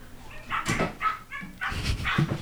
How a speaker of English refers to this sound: those are the cats, they're they're having a conversation.